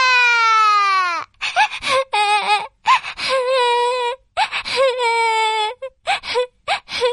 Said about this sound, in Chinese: 他忍不住大哭起来。树枝上的小麻雀听到哭声，飞了过来。